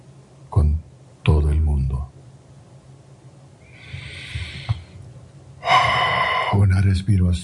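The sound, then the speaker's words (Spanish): Several slow, deep breaths during a guided relaxation exercise, airy inhales and exhales, with a loud, drawn-out breath near the end and brief bursts of voice between them. “respiración más, abren los ojos y disfruta el día.”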